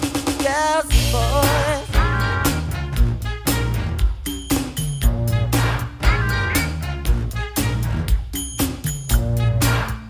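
An upbeat 1980s-style pop song plays loudly, with a punchy steady beat, thick bass and bright synth lines bouncing over the groove. No one speaks over the music.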